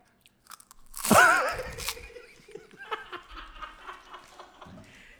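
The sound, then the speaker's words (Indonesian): A loud crunch of crisp cow-skin crackers (rambak) being bitten, followed by several seconds of softer crackly chewing, with a brief giggle near the start. “rambak rambak sapi apa babi deh itu sapi sapi uh, uh. sapi denger denger suaranya apa suaranya”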